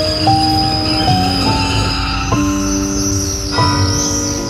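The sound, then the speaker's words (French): A passenger train pulls away along the rails, its steady rumble overlaid by shifting metallic whines and squeals that step up in pitch. The sound is loud and continuous, with no voices. “y a des trains et des filles qu'on ne devrait jamais laisser partir. Le Saint-Étienne-Paris, de 10h55 par exemple.”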